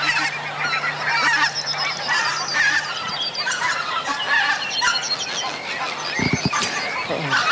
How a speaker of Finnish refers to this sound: Ihan yli. Joo, hanhet lentää ihan tästä meidän pään ylitse.